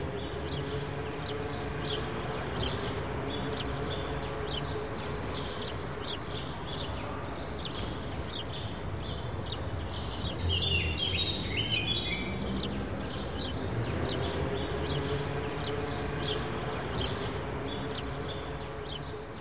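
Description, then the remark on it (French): Birds chirp and sing outdoors among trees on a sunny day in Marseille, over a steady wash of city noise, with brief bright calls standing out near the middle. No one speaks. “Il y a du soleil, des arbres, des oiseaux.”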